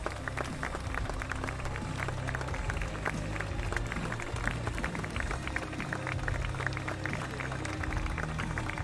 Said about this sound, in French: Je ne vous ai pas entendu, bien sûr qu'on applaudit Catherine et Michel, mais on applaudit aussi toute l'équipe, parce que c'est une équipe soudée qui a permis qu'on vive des grands, grands moments. Un maximum d'applaudissements, s'il vous plaît.